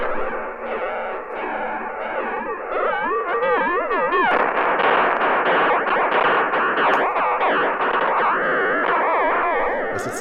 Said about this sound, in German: Das ist gerade das Signal für Vollgas voraus. Klingt vielleicht ein bisschen so, wie wenn dein Bruder äh, in ein Funkgerät pfeift.